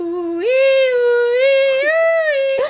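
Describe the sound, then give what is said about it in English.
A single voice sings a wavering, eerie 'ooh-wee' melody, imitating a spooky alien sci-fi theme. The pitch slides upward and the tone holds clear and steady for a couple of seconds. “It's like aliens, isn't it? Like X Files.”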